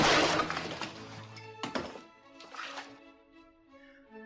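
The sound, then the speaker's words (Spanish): Young Ebenezer, overcome by shock, collapses heavily onto the floor: a loud, scattered crash, then two more sharp thumps and clatters that fade out over sustained musical tones. “Fue tan grande la impresión que le causó al joven Ebenezer que éste se desplomó en el suelo, causando un gran ruido al caer.”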